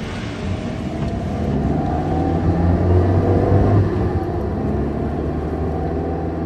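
A car engine rumbles steadily, swelling slightly midway as if revving while the vehicle drives along, with no voices over the continuous low drone.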